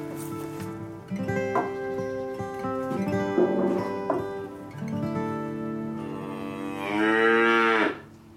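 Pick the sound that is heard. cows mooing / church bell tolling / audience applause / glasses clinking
cows mooing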